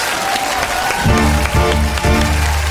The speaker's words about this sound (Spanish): Quiero un fuerte aplauso para recibir el primer plato de la noche.